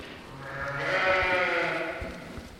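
A lamb bleats in one long, wavering cry that swells and fades over about two seconds, fairly loud, with faint shuffling underneath and no talking; the lamb is in a pen with a nanny goat that is raising it as a foster mother.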